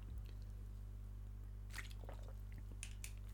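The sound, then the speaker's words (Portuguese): A quiet sip of water: a few soft wet slurps and swallowing clicks spaced over a few seconds, with a steady low hum underneath and no talking. “e vai agora golito d'água para continuar a história.”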